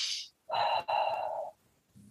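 A short airy inhale followed by a long, slightly voiced exhale, like a deep breath in and out, fairly loud with no talking.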